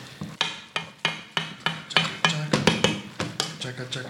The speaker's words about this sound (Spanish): Coge el huevo. Y le revuelves, lo revuelves bien. Para que te pegue y no se te cocine el huevo.